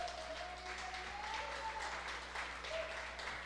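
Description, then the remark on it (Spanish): An audience applauds God after a prayer, steadily, a dense wash of many hands clapping at once with no break, moderately loud. A faint tonal hum sits beneath the clapping. “Le podemos dar un fuerte aplauso a nuestro Dios.”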